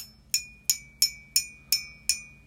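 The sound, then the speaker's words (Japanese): A mug handle clinks six times in a steady, evenly spaced rhythm, each tap bright and high-pitched with a short ringing tail. There is no talking. “このねマグカップの取っ手の音なんですけどこれがこれでしょ”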